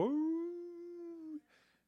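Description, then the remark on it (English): A person imitates a beagle hound's howl: one long, steady howl held for over a second, then cut off and followed by a short breathy exhale. “they'll, howl, they'll howl with me.”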